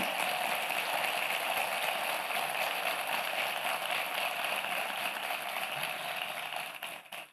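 A large crowd applauds in a dense, steady wash of clapping that holds for about seven seconds before tapering off abruptly at the end. No one speaks over it.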